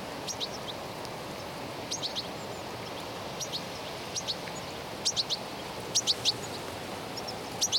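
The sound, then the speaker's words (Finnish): Goldfinches twitter in short, bright bursts of high chirps, scattered irregularly, over a steady rustling hiss of wind through dry, upright thistles and other plants in a shore meadow in central Helsinki, Finland, on August 24. “Tulee hienoja lisää ääniä vielä, mutta tiklit pitää kyllä veikeitä omaa tikutustaan.”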